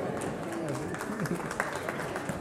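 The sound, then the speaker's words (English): An audience claps steadily, a dense patter of many hands lasting a couple of seconds, while voices murmur and talk over it. “I didn't make those up, but thanks for clapping.”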